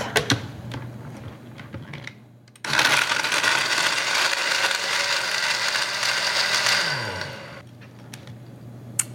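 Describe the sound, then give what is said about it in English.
A few clicks and rattles, then a blender roars to life, whipping a drink with meringue powder, powdered sugar and vanilla into a froth, whirring loudly and steadily for about five seconds before its motor hum sinks in pitch and winds down. No one speaks. “And when I whip this up, the meringue powder is gonna give it this wonderful frothy texture.”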